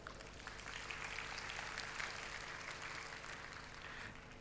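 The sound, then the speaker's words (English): An audience gives a clap offering to God, a dense wash of many hands clapping at a fairly even level for several seconds, with a faint hum underneath. “Come on, let's give God a clap offering.”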